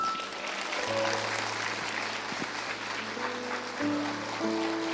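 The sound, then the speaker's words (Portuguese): A church audience applauds God steadily after a prayer for several seconds, a dense, even patter of many hands, while sustained keyboard chords hold and shift beneath the clapping. “Você pode aplaudi-lo?”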